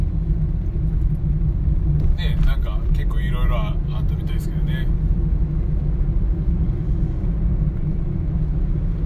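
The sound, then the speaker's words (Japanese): A steady, low road rumble of a car driving home on National Route 163 fills the whole recording, with a man talking briefly over the continuous engine and tyre noise. “ちょうど今国道163ねこ163で帰ってるとこですけど”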